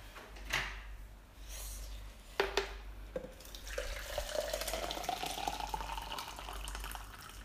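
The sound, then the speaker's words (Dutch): A few clinks and knocks of an electric kettle being handled, then a steady stream of about 750 millilitres of water pours into a pot of vegetables until they are just covered, the pitch rising gradually as it fills. No one speaks. “Dus ik pak even de waterkoker erbij.”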